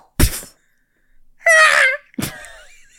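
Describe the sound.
A man's voice acts out a theatrical death scream for being shot with an arrow: a sharp burst, then a loud strained wailing cry rising in pitch, followed by a shorter anguished yelp, all unaccompanied.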